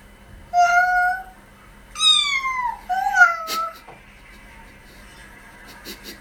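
A kitten and a baby trade high, squeaky meow-like cries back and forth: three short calls in quick succession, separated by brief quiet gaps.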